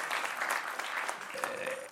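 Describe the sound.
An audience applauds with dense, steady clapping that fills the whole moment, with a faint sustained tone and a voice or two showing through near the end.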